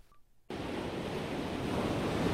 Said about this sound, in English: It's one of the most beautiful views of any campus in America, the Pacific Ocean crashing against the shores of UC Santa Barbara every morning, noon, and night.